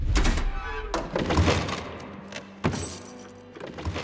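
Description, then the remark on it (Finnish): A jeep's tailgate is opened with a heavy latch clunk and metallic rattling, followed by a sharper knock near the end, with a faint vehicle rumble underneath, as ammunition is fetched from the jeep. “Takalukku auki ja rajoitettuun määrään ammuksia koulutuksen aikana tottuneiden varusveijareiden nirvana avautuu eteemme kaksi isoa puista laatikkoa, yksi valojuovaa ja toinen normi 7.62, kaikki vain viidelle soturille.”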